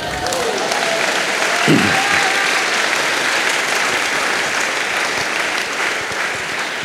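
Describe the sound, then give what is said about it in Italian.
An audience claps in sustained, dense applause that holds at a steady, fairly loud level for about seven seconds, with a faint voice briefly audible underneath near the start. “L'applauso ve lo siete persi.”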